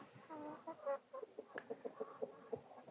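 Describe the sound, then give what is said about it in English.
Chickens cluck in a busy chorus, with a quick series of short, rhythmic clucks and a few drawn-out calls at the start. There is no talking. “Ah, I walk back over to these chickens and I look at them.”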